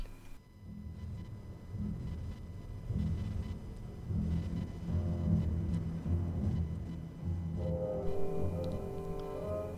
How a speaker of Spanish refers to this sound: son dos obras de, de, Ravel, no solo esta que estamos escuchando, que es la que va a cerrar el, concierto. Eh, es menos conocida de me parece. Mm. Es menos ejecutada, sobre todo por aquí, por en nuestros países es menos ejecutada, sí.